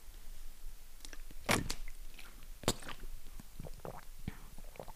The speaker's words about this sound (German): Lustiges Geräusch. Ich habe momentan meine Sportwasserflasche am Start.